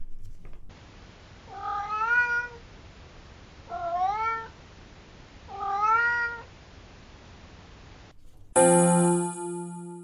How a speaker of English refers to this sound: I've been trying to convince my cat to say hello. It sounds as if he's meowing, hello, but I think it's getting better. Have a listen and see what you think.